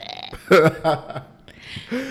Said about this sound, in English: Dang, it's gonna be in there. They'll hear my burp.